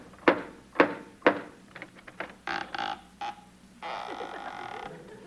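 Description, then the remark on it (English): Costello knocks three sharp, evenly spaced knocks on the door of Peter Lorre's home, followed by a few quicker clunks and rattles, then a sustained, wavering creak-like tone near the end. No voices. “Costello, once and for all, will you please knock on the door?”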